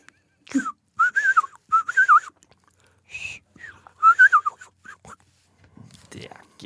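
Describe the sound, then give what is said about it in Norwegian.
A person whistles a quick birdlike song imitating a chaffinch, with bursts of warbling trills and a rising-falling flourish, fairly loud, with brief pauses between phrases. “Jeg vil gjerne høre lyden av bokfink.”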